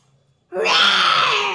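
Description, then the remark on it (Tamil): After a brief silence, a voice bursts into a loud, sustained, raspy roar held for about a second, a big shout of "Ho" imitating a lion's roar. “இருக்கிற மரம் செடி கொடி எல்லாம் பிச்சு தூக்கி போட்டு பெருசாக ஹோ அப்படின்னு கத்துறாரு சிம்மநாதம் வா அப்படி கத்தினா அப்படி இருக்கும் சி சிங்கம் அப்படி கத்தும்”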